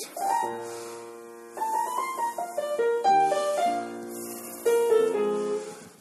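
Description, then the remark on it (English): A slow New Orleans blues melody played on horns, with sustained, bending notes over a soft chordal backing, moving in unhurried phrases at a moderate, steady loudness and no voices. “Um, and uh, that melody sounds like this.”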